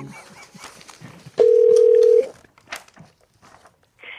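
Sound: telephone dialing tones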